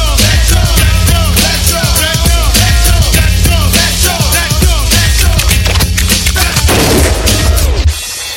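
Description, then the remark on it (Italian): Loud, dense music is punctuated by sharp, explosive gunshot bangs, and a final burst of gunfire cuts the song off abruptly near the end, leaving a quieter tail. “Yeah, le, fi- le, classiche canzoni che finiscono con lo sparo”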